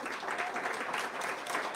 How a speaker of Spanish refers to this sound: Ahora sí, un buen aplauso.